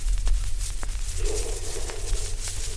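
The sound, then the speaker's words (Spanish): A few slow, spaced footsteps thud faintly over a steady low rumble, each step a soft, dull knock with long pauses between them and no voices. “¿Qué suena? Pasos. Pasos.”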